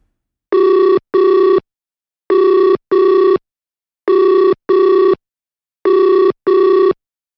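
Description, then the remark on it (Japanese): Loud, clear electronic telephone beeps in four evenly spaced pairs, each a short steady buzzy tone with a brief pause between pairs. No voices, just the tones. This is the original opening of the show Rus Freddy from November 2005, with a different tone from the current version. “もうこのピーピーっていう音の音色からしてね、現行のバージョンとは全然違うものを使ってたってことですね。”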